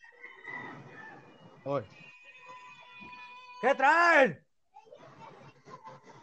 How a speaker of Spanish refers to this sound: Si el papá, hoy, fíjate, un ejemplo, si escuchas, hoy mis hijas están gritando como neuróticas.